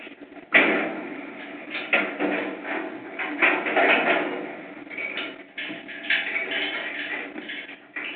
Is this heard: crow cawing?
no